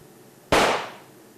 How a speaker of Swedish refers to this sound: Men den här gången riktade jag den inte mot min vän, utan mitt eget hjärta. Handen skakade och tårarna rann. Men någonstans bland alkoholdimmorna var jag fullständigt fokuserad när jag långsamt kramade avtryckaren och lät skottet brinna av.